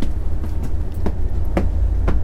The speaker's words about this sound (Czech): jsme nastoupili do regionálního vlaku a budeme teď procházet celý vlak od začátku až na konec.